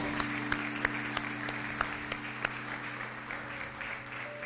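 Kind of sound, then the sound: crowd, audience applauding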